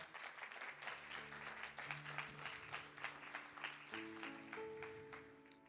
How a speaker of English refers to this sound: The prophetic is a tool and a weapon that God gives His church for us to fight with until we reach victory. Somebody give the Lord a hand clap for that.